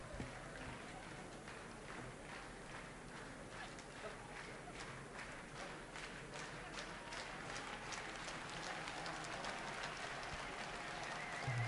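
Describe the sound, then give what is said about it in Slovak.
A large crowd gathered to greet Pope Francis claps spontaneously, a dense, steady patter of many hands that swells slightly toward the end, with murmuring voices mixed underneath; many wave yellow scarves and chant for the Pope. “Môžeme počuť veľmi bezprostredný, spontánny potlesk Mnohí majú v rukách e, žlté šatky, mi mávajú svetému otcovi, skandujú, zvolávajú pápa Francesco, pápež František.”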